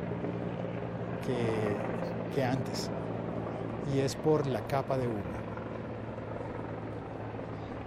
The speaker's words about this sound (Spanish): Tres, perdón, ahora son tres helicópteros. Una cosa curiosa es que en esta ocasión los helicópteros están volando mucho más alto